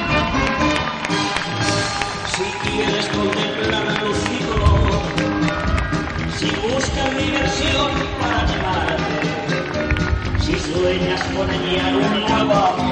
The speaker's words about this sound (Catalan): Ahí teníem aplaudiments als treballadors i pirotècnics d'esta mascletà de 2015, pirotècnia Cavaller Fireworks.